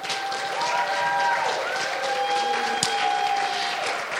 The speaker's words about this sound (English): Can you give some hand clap